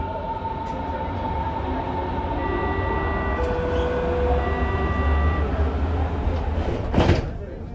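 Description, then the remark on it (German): Steady rumble of a Berlin Ringbahn S-Bahn commuter train riding along the rails in Charlottenburg-Wilmersdorf, Berlin, heading for Messe Nord/ICC station, with droning motor tones that rise and shift and a brief rattling clatter near the end. “Es ist leicht zu erreichen, so wie wir mit der Ringbahn oder mit dem Auto, der U2 oder sogar dem Fernbus.”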